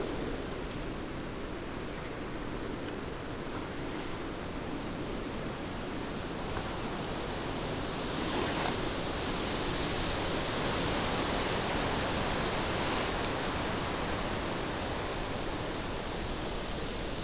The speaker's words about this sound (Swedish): Tiden går och vinden ges inte. Asparna på kalhygget på andra sidan sjön kastar sig fram och tillbaka.